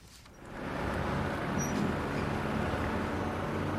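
Steady street traffic ambience at a bus stop, with a low rumble of passing vehicles, swelling in after a quiet start and holding a continuous wash of road noise.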